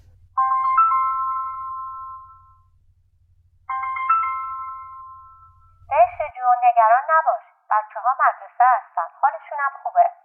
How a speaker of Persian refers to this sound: بالاخره گوشیم زنگ خورد